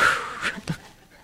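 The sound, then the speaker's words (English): Deep breathing in and out: audible breaths, a long airy exhale followed by a couple of shorter huffs, fairly loud with no talking, almost like panting. “I've learned some breathing techniques when I get upset. I got to breathe in, breathe out.”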